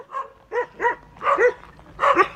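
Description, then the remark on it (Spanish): Rowdy crowd voices in the stands bark like dogs in five loud, rhythmic bursts, a chanting imitation of barking ringing through an arena as the crowd cheers for boxer 'El Perro' Angulo. “así sonaba ayer la, el sábado la, tribuna. la gente vitoreando al perro.”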